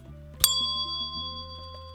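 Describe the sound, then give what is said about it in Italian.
A single bright ding from a small, colorful push-button bell, its button pressed by hand to move a clapper inside, ringing with a clear sustained metallic tone that slowly fades. No voices. “Se noi schiacciamo questo pulsante con la nostra mano, eh, facciamo muovere un battente all'interno della campana e questa suona.”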